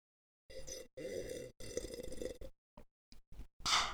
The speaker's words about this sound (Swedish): Snarare en slurp vatten.